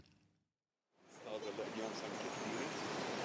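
After a short murmur and a moment of silence, the steady rush of a flowing river in the Beqaa Valley, Lebanon, fades in and continues, a dense, unbroken wash of sound.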